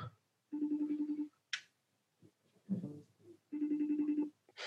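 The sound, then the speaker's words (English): A phone ringback tone sounds twice on an outgoing call to a woman, each long, buzzy burst repeating with a pulsing rhythm, separated by a pause with brief rustling and a short sharp noise in between. “She might not be by her phone.”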